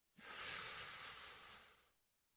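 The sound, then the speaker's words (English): A single slow, deep breath drawn in through the mouth or nose during a guided breathing exercise, a steady airy hiss lasting under two seconds and fading off at the end, alone with no talking. “Breathing in,”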